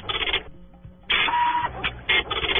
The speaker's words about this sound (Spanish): Eh, la impresora de puntos.